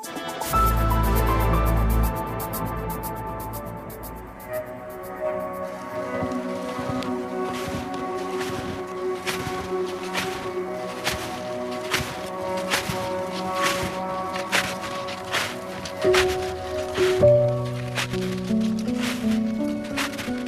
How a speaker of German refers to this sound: Was Sie hören, ist Schnee. Schnee, der unter den Schuhen